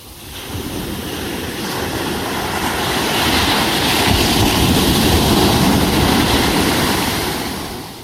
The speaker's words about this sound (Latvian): Kas tur šalkojās, kas tur viļņojās? Jūra! Jā, tā bija jūrā. Jā, ļoti labi. Mm -hmm tā skalojas viļņojas jūra.